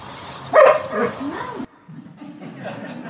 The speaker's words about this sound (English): We heard the dog, didn't we?